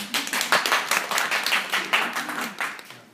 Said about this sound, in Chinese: 来鼓掌，鼓掌。